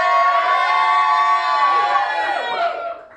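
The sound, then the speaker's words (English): A crowd cheers loudly and steadily for about three seconds, a dense mix of high excited voices and whoops that holds strong before fading out at the end. “Okay, so um, we, I think we'll just do this with, a, with cheers.”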